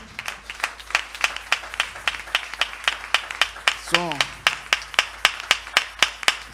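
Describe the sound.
A church audience applauds a visiting pastoral couple with steady, rhythmic clapping, sharp regular claps repeating throughout, while a voice briefly speaks over it.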